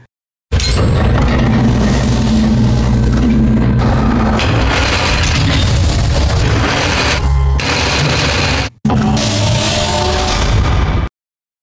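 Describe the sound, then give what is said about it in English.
A heavy vault door sound effect grinds open with loud, dense mechanical rumbling and clanking, running about ten seconds, broken by one brief cut near the end before a final surge. “Let's do the little vault door thing.”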